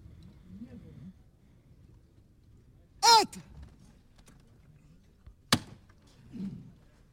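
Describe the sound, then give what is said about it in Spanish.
A metal knocker (llamador) on a procession float (paso) on Calle Castilla in Triana rings out with one loud, resonant strike, then a sharper second knock a couple of seconds later, over a low murmur of crowd voices, as the bearers beneath the float strain under it. “Ahí suena el llamador, el esfuerzo debajo del paso.”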